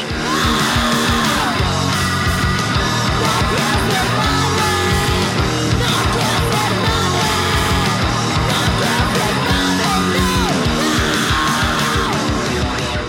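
A loud, dense punk rock song plays continuously, with distorted guitars, driving drums and what sounds like shouted vocals filling the whole stretch at steady volume.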